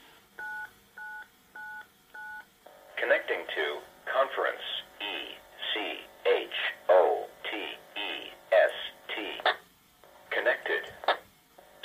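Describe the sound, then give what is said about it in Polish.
Four short, evenly spaced touch-tone DTMF beeps on the same key, keying the radio command 9999 to connect to a test server, followed by a man's voice speaking steadily over a slightly tinny, radio-like channel. “Tymczasem teraz za pomocą komendy 9999 łączymy się z serwerem testowym, aby przeprowadzić test, już mówiąc bezpośrednio do radia i przekonać się o tym, jak nas słychać.”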